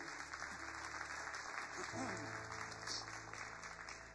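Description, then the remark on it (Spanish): A church audience breaks into steady, dense applause for the church's friends at Campus Montevideo in Uruguay, filling about four seconds, many hands clapping together at an even intensity, with a faint murmur of voices mixed in. “¿Les parece si le damos un aplauso fuerte a todos ahí?”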